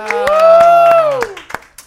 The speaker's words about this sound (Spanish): Aplausos otra vez porque ah, es viernes de quincena.